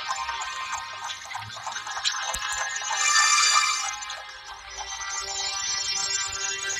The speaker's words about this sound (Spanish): Una disculpa por el teléfono de, de mi casa, pero bueno.